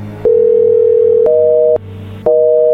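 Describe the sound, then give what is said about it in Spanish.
A steady electronic telephone tone hums for about a second as a number is dialed again, then shifts to a slightly higher two-note buzz with brief clicks between segments, pausing once before resuming. No one speaks. “A ver, márcale de nuevo.”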